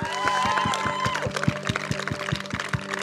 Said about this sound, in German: Komm mal, lass uns mal Gott einen richtig großen Applaus geben, hey.